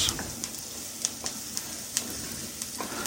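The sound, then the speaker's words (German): Steady crackling sizzle of onions frying in a pan for a creamy tomato soup, with a dense hiss and scattered sharp pops throughout, moderately loud, no voices. “So, mal gucken, was die Zwiebeln machen.”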